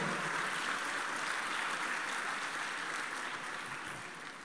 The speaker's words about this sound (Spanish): Déselo al Señor ese aplauso si se lo va a dar, por favor.